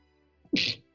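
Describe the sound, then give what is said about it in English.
A single sneeze: a quick faint intake of breath followed by a sharp, loud, hissy burst that fades within a fraction of a second, with no talking around it. “Bless you.”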